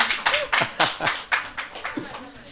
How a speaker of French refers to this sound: on entend le public applaudir derrière. je pense que c'est la plus belle promotion que vous pouvez faire au court métrage.